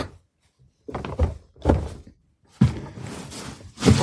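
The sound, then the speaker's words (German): A door is pushed shut again and again, giving four dull, heavy thuds with rattling in between, as if it keeps bouncing back instead of latching. “ich krieg jetzt die Tür nicht zu.”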